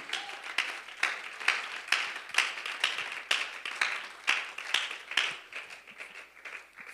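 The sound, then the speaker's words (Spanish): An audience at a Christian church service claps for the presence of God in a steady, rhythmic beat, many hands sounding as bright, sharp claps that keep a fairly even pulse, with no voices clearly heard over them. “Aplauda con más corazón la presencia de Dios.”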